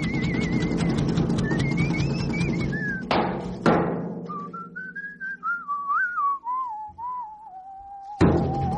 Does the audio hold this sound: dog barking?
no